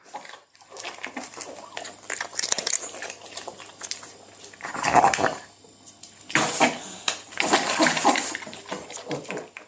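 A dog eats, gulping and chewing noisily between harsh, snorting breaths that sound labored as it struggles to breathe while eating, with occasional clinks like a bowl being nudged.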